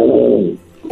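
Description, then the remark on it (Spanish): A child's voice growls loudly like a bear, a sustained low rumbling roar that fades out, followed by a short breath or vocal sound at the end. “¿Puedes hacer el ruido de, de, un, de un oso?”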